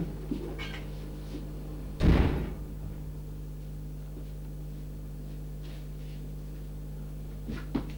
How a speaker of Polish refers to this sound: Zamknę, proszę Państwa, drzwi.